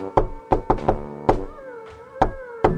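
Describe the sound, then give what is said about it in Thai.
Loud knocking one afternoon on Uncle Tui's door by a visiting crow: a quick run of four raps, another knock, a pause filled by a brief wavering tonal sound, then two final knocks. “บ่ายวันหนึ่งเสียงเคาะประตูก็ได้ดังขึ้น เมื่อลุงทุยได้ออกไปเปิดประตูต้อนรับ เขาก็ได้มาพบกับกาที่มาพร้อมกับตะกร้าทองหยอด”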